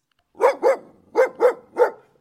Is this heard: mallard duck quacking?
no